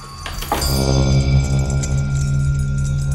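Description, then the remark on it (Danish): A doorbell rings with a steady, buzzing electric tone that holds loud for several seconds after a brief clatter at the start, at the door of a small apartment on Saxogade in Vesterbro in November 1942, with no voices. “en dag i november 1942 ringer det på døren i Else og Åges lille lejlighed i Saxogade på Vesterbro”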